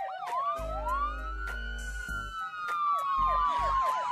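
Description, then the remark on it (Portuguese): A loud siren wails continuously, its pitch sweeping up and down in long rising and falling tones, with a deep rumbling engine-like drone beneath and sharp bursts of noise. “O silêncio reinou porque todo mundo queria ouvir a, sile... a sirene.”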